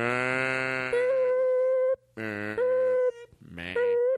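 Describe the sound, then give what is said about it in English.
A person imitates a cow, letting out low, drawn-out moos in three bursts, each cut across by a steady high censor beep that covers the end of the mooing. “Imagine a cow mooing and that getting beeped out.”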